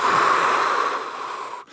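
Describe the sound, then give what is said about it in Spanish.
A long, deep breath, airy and steady before tapering off, taken while gazing at the sun, then a brief pause as the next breath begins. No one speaks. “De hecho, trata de penetrar el sol con tu mirada. Respirando.”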